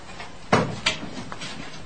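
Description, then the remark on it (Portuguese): A door is unlocked and opened: two sharp clicks of a lock or latch about a third of a second apart, then a softer knock and quiet rustling as it swings. “A porta está aberta.”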